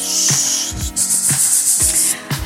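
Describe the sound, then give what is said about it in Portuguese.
A steady, loud snake hiss runs through the whole clip, with a soft beating pulse and low tones underneath it. No one speaks. “Aqui, que som é esse aqui, ó? É uma cobra, né?”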